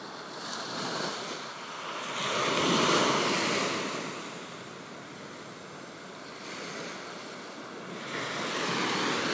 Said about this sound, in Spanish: Seguirás escuchando las olas, pues ya está contigo. Te acompañará para cuando necesites recordar que el poder está dentro de ti.